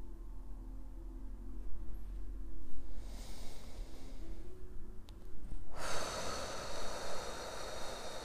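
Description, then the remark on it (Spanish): Slow, deep breaths with a long airy inhale swelling into a broad, rushing exhale, taken while the person moves their eyes from right to left, set against a low steady hum. Fairly soft, with no talking. “Moviendo mis ojos de derecha a izquierda con mi respiración profunda y lenta.”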